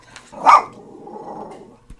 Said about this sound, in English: Yeah, oh, we just had some fucking thunder here, and the dog is reacting to it accordingly.